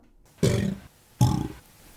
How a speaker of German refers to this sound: das eine war halt ohne Helium, das mhm. andere mit. Ähm, Genau, das, äh, ich meine, ein Alligator, der Helium einatmet, kann man sich vorstellen, dass da die Stimmung vielleicht auch ein bisschen äh, ja, erheitert ist